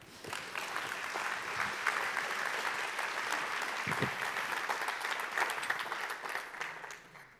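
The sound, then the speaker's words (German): An audience at a live stage show applauds steadily, a dense patter of many hands clapping at a fairly even level for several seconds before tapering off at the end. No one speaks over it. “Jetzt können wir klatschen, ich muss wieder auf die Bühne.”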